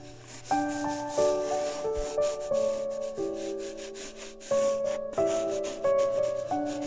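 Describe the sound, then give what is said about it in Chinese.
A black crayon scribbles across paper in repeated rough rubbing strokes, coloring in the black sky of a picture from a picture book, a steady scratchy texture running under a gentle, plinking musical melody with no one speaking. “嗯，先把这个黑色的天空画出来，涂涂涂。”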